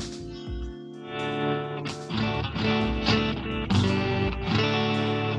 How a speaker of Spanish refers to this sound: mira, para empezar voy a mostrar cómo suena mi guitarra así sin, sin nada, completamente limpio. Dale. Ahí.